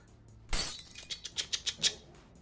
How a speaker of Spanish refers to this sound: Y cuando la mano va hacia abajo y Dexter logra entrar sin problemas, cae encima de la ventana y de estos pedazos de vidrio. Suenan algo así como